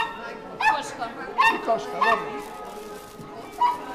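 A few short, sharp dog barks ring out at uneven intervals, moderately loud, with a last bark after a brief pause; faint background noise between them.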